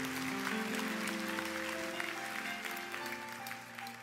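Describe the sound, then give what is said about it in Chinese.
A church audience breaks into steady, dense applause for its small group leaders and pastoral co-workers, many hands clapping together for about four seconds, with sustained musical tones held underneath before the clapping starts to thin out. “所以这就是我我想要特别再一次谢谢我们所有的小组长跟我们的牧养同工，给他们一个的掌声，可以吗？”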